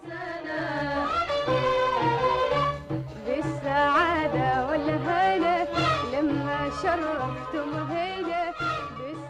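A woman sings a flowing, ornamented melody with a warm, full voice over steady instrumental accompaniment, the music playing continuously and fairly loud throughout.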